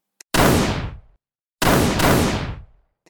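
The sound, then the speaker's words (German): A single loud, close gunshot rings out and echoes away, then after a short pause two more shots follow in quick succession, each with a booming, reverberant tail. The shots are fired in Reithofer Park, Rudolfsheim, on Saturday, 27 March 1948. “Ein Fleischer öffnet den Rollbalken seines Geschäfts und hört aus nächster Nähe einen Schuss, gleich darauf zwei weitere Schüsse.”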